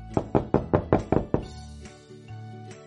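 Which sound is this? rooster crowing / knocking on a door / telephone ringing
knocking on a door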